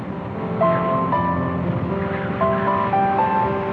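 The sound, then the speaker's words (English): Steady ocean waves rush and rumble with a dusk wind blowing through, a continuous wash of surf noise. Faint, held tonal notes step up and down above it, and no one speaks. “A dusk wind dances up the waves.”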